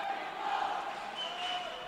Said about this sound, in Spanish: Y otra vez el graderío que ya hizo la ola, que ya aplaude y ahora entona el México, México.